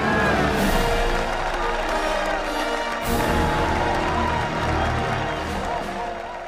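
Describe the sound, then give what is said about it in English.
A large crowd cheers and applauds loudly and steadily for Captain America, with whoops and clapping blending into a dense roar that holds for several seconds. “Let's hear it for Captain America!”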